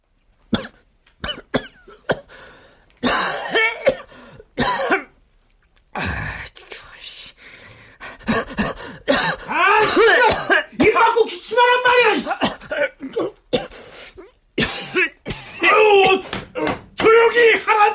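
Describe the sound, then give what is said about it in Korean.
Repeated harsh coughing fits, loud, come in bursts with groaning, strained vocal sounds between them, from someone who caught a cold during a midwinter stakeout on the coldest night, hacking through the night. “가장 추웠던 밤, 한겨울의 잠복 때문에 저는 그만 감기에 걸리고 말았습니다.”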